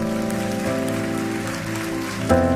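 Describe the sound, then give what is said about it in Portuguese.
A church audience claps steadily for the Lord during a sermon, a dense crackling wash of applause over sustained keyboard chords that hold and shift pitch, the whole mix fairly loud and even throughout. “Aplauda o Senhor.”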